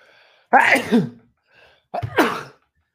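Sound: a person sneezing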